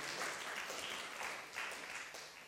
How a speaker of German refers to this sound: Ja, diese drei Helden, gib denen mal einen richtig dicken Applaus. Das richtige Helden. Ich bin so, so stolz auf die.